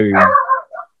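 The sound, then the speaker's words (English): A dog gives a single short, sharp bark that trails off into a brief whine, heard fairly clearly with no talking over it. “And if, if I'll just heard your dog in the background.”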